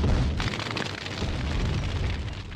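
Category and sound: sound effect, bomb explosion sound effect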